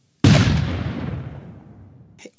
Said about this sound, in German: Und mit einem Mal gab es einen Schuss.